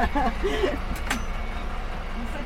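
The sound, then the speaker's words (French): The engine of a bus from Nyons rumbles steadily as it pulls in and stops at Valréas, with a brief sharp hiss partway through and faint voices murmuring in the background. “C'est le bus de Nyons qui s'arrête à Valréas”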